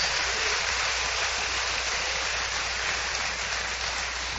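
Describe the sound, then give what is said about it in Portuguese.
A church audience, told by the pastor to applaud the Lord during a sermon, applauds steadily: a dense, even wash of many hands clapping together at a constant loudness for several seconds, with no voices standing out. “Aplauda o Senhor, porque eu quero profetizar isso na sua vida, no nome de Jesus.”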